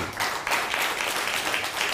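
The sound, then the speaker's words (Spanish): An audience applauds together, a steady, dense wash of many hands clapping at once, sustained and fairly loud throughout with no speech over it. “Pues Baruch Hashem, vamos a dar un fuerte aplauso a toda la comunidad.”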